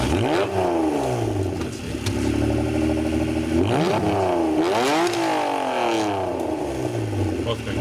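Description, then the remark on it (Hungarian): A Honda NSX sports car engine revs hard, its pitch climbing and dropping in several quick surges, with a steady loud rumble between the bursts and no one talking. “Ennyiből nekem nem lenne meg az NSX.”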